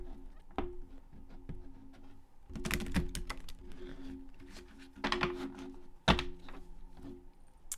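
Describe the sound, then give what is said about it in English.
Crisp papery clicking and rustling as a deck of oracle cards is shuffled, with dense riffling bursts around the middle and a soft thump near the end over a faint steady hum. “As I'm shuffling, I just want to remind y'all leave your ex alone.”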